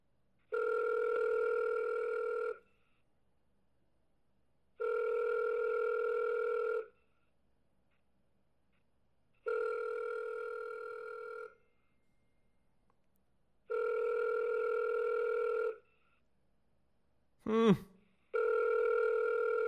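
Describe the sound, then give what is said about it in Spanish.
A telephone call placed to a woman rings out unanswered: five steady, buzzy two-second rings separated by silent pauses, with a brief sharp chirp just before the last ring. “Bueno, Alondra, no lo cogiste.”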